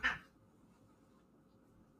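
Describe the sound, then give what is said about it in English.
A brief, muffled squall from cats scuffling in a cat fight in the next room, a single sharp yowl at the start that quickly fades into a quiet hum. “little cat fight happening in the next room, don't worry.”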